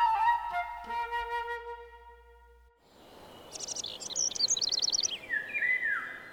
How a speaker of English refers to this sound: We're coming up on the longest day of the year in Vermont. The birds start singing at around 4 a.m. and they don't quit until the night insects take over well after 9 p.m.